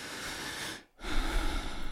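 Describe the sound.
A person imitates heavy, intense breathing: a loud, airy breath, a brief silent pause, then a second, stronger rushing breath, with no talking.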